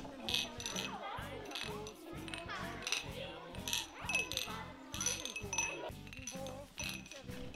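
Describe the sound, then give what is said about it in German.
Glasses of water, apple juice and orange juice clink together repeatedly in a toast to the winners of a playground participation project, bright high chimes ringing out over a busy murmur of voices and a steady low rhythmic thump underneath. “Alle stoßen an und gratulieren … und seinen Freunden zum Gewinn.”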